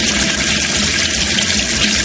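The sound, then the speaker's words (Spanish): Water pours steadily from a tap in a loud, unbroken rush, a constant bright hiss with a low churning undertone. No voices are heard. “No sé si alguna vez te has parado a pensar en la suerte que tenemos de vivir en un lugar en el que se puede abrir el grifo y beber agua de calidad a cualquier hora del día o de la noche.”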